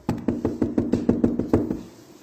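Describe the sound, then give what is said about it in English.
A rapid, steady run of about a dozen knocks on a door, evenly spaced, with no voices, fading slightly at the end. “So if someone's knocking on your door”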